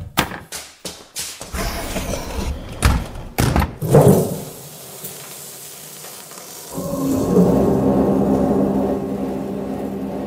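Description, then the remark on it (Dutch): A heavy cold room door is pulled shut: a quick run of clattering knocks ending in a dull thud, a brief hush, then a steady mechanical hum takes over. “Ik trek de deur van de koelcel achter me graag, dicht.”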